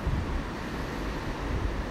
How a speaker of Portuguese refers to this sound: porque eu estou de frente para o mar. E daí você vai talvez ter ao fundo o som das ondas, talvez o som do vento, talvez algo que nem se pareça nem vento, nem, nem mar.